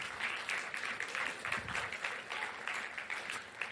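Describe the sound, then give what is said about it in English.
A church crowd claps steadily and warmly for the men standing up on a men's day, a dense, continuous patter of many hands at moderate loudness, with no voices standing out above it. “Yep, you can clap for him.”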